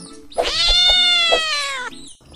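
A single long, drawn-out cat meow, loud, its pitch sagging gradually toward the end before it cuts off, with no voices around it.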